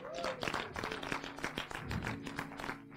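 Steady applause from an audience, many hands clapping in a dense, continuous patter with a few louder individual claps, a faint voice or tone underneath.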